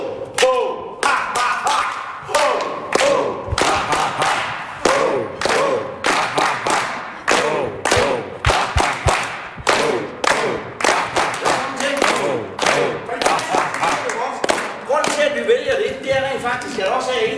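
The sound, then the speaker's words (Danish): A group chants a loud, rhythmic "ho" together between short exercises, punctuated by sharp claps and heavy stomps in a steady driving beat, with crowd noise swelling underneath, energetic throughout. “Og det er noget med, at det, det er noget, vi siger, ho”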